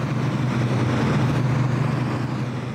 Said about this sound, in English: It is stack upon stack of computer servers, and the fans needed to cool them. This is what's known as a crypto mine and it makes the sound of people in San Francisco trying to make virtual money.